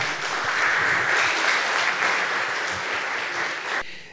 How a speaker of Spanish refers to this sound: Dele fuerte ese aplauso al Señor.